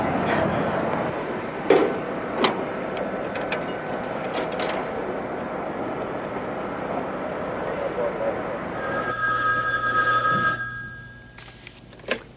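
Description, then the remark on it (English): A run of sharp mechanical clicks, like a phone being dialed, gives way to one bright, trilling telephone ring lasting a couple of seconds, heard over a steady background murmur. “Can you wait till I make a phone call?”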